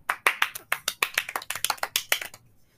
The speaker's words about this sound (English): Round of applause, everyone.